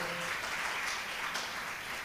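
An audience breaks into applause, a dense, steady patter of many hands clapping for about two seconds, fairly loud and even throughout, with no voices over it.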